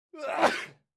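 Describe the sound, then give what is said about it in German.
A single short sneeze, fairly loud, with a quick voiced intake leading into a breathy noisy burst that fades within a second. No one talks during it. “Gesundheit.”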